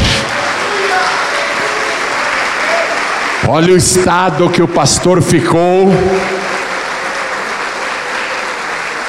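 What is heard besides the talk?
audience applauding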